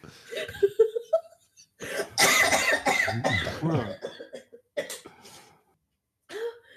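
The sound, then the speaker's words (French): A loud coughing fit: a cluster of harsh, rasping coughs in quick succession, then a few shorter scattered coughs and a brief vocal sound trailing off after a pause. “Ah, je surtout pas tousser en ce moment.”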